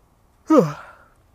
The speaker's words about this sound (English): Big yawn.